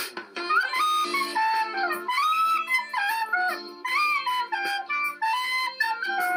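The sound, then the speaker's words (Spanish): A whistled melody, the song for calling the horse from The Legend of Zelda, with gliding, rising and falling notes that runs continuously for about six seconds, fairly loud and steady, with no one talking over it. “Ya tengo la canción para llamar a Caballín.”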